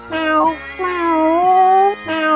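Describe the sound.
A person imitates a cat meowing: a short mew, a long drawn-out gliding meow, then another short one starting. The voiced, fairly loud calls are heard alone, without talking.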